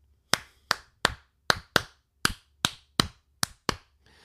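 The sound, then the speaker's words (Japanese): Ten crisp hand claps play the son clave rhythm twice through, a group of three followed by a quicker pair each time, with no voices. Son clave is a rhythm particular to Latin music and is the crowd-clapping rhythm used at loanDepot Park in Miami. “これいわゆるソンクラーベと呼ばれるリズムで、えー、これね本当にねラテンの、えー、音楽に特有のリズムなんです。”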